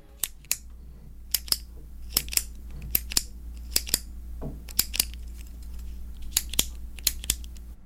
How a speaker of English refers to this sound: it's a clicking pen. You know, you, you put the pen to write. It's the clicking device on the pen.